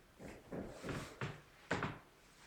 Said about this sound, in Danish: Så der er, der, er, der er nogen, der banker. Det er ikke os. Det er nogen, der reparerer noget, og sådan er det.